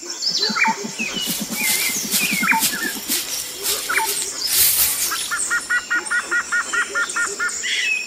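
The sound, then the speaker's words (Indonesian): Dense forest ambience full of birdsong: assorted chirps and whistles overlap, with a low repeated croaking call early on and a fast, evenly spaced series of bright chirps near the end. “Akhirnya mereka tiba di tepi sungai dan segera memasuki hutan belantara.”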